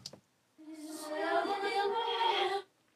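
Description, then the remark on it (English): A brief click, then a smeared, sustained vocal tone holds for about two seconds, its harmonics drawn out and shimmering, a voice slowed and time-stretched, fairly loud before cutting off. “Some time stretched vocals.”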